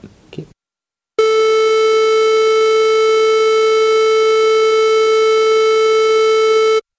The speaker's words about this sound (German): Ja, okay. Das, genau, das war jetzt ein äh, Sinus.